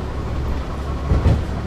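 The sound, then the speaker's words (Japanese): Steady low rumble of a diesel railcar, KiHa 101-7 running as Aterazawa Line train 350D, heard from inside as it arrives at Yamagata terminus, platform 6, on a day of heavy snow in 2009. A continuous droning engine and wheel noise with a couple of slightly louder thumps near the end, no voices. “左沢線350D（キハ101-7） 山形終着アナウンス”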